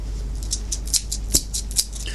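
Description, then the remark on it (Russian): Keys jingle in a handful of bright, irregular metallic clinks over a couple of seconds, with a steady low hum underneath and no talking. “Это ключи.”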